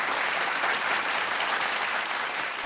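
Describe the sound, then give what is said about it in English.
Steady, sustained applause from a sizable audience after a speech given from a pulpit, a dense wash of many hands clapping at once with no pauses, fairly loud throughout, no voices standing out. “And I spoke about my experience of healing and what it had done for me, and it was met with such a generous response of applause.”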